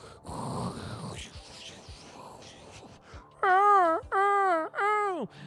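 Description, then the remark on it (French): A voice imitates ocean waves during an improvised relaxation exercise, first with a breathy rushing whoosh, then three loud, drawn-out moaning swells that rise and fall. “Respirez un grand coup, inspirez, expirez, écoutez les vagues de l'océan.”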